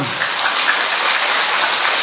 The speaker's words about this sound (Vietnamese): to lên vỗ tay to lên thưa anh chị em